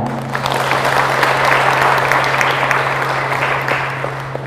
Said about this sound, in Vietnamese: Xin quý vị dâng cao tràng vỗ tay.